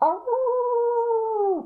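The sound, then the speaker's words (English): A voice imitates a wolf's howl, giving one long, steady wail that holds a single pitch for over a second before tapering off at the end. “There's a wolf howling in the background.”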